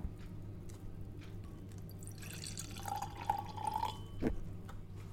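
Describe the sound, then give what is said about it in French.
Wine, a 2020 Jean Leblanc from Domaine de Camposel, trickles and splashes softly into a glass at a tasting, with a gurgling pour midway, a brief clink, and a steady low hum underneath; no one speaks. “Alors, je vais vous servir aussi.”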